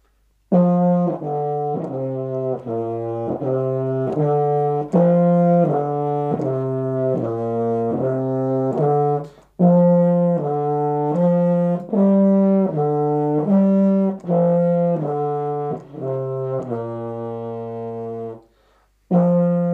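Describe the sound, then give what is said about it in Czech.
A short melody on a euphonium, mellow low-pitched notes in a steady, lilting rhythm, with a brief break midway and a final held note before it stops. No one talks. “Je to eufonium. Já na to mám takovou krátkou skladbičku, opravdu krátkou.”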